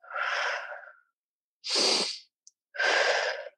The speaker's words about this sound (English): So, a really good relaxation pranayama technique or breathing technique is to breathe in through the nose and out through the mouth